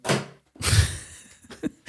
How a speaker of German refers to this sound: Jetzt ist gerade mein Handy runtergefallen.